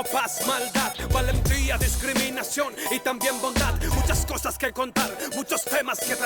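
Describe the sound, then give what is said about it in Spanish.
An urban, street-style rap track plays loudly, with a male voice rapping steadily in a heavy flow over a dense beat and deep, booming bass notes that swell in long sustained hits. “Ya, ven, ven, ven, ven, esto es muy, muy, muy, muy calle, muy, muy, muy urbano, con un flow bastante pesadito, muy, muy bueno, y con sus letras, que no las alcanzan a escuchar obviamente porque muy poquito lo que estamos escuchando”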